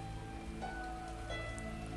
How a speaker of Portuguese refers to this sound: Nesse momento em que eu estou gravando, está caindo uma chuva forte.